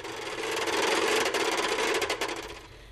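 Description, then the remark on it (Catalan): A wooden ratchet rattler (carrau), a children's noisemaker with a wooden tongue that strikes the teeth of a cogwheel as it is spun, whirls in a steady burst of rapid, dry clicks, fairly loud, with the clatter fading toward the end. No one speaks. “hi havia una joguina, un instrument, fet de fusta amb una llengüeta, que en fer-lo giravoltar feia batre les dents d'una roda dentada que crepitava amb un soroll ben molest.”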